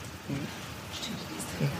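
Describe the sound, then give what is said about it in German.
A steady, hissing rush of water from the canal lock just below, right ahead, fills the background, continuous and even, with faint low voices murmuring briefly underneath. “Und was hier so rauscht, das ist die Schleuse unten.”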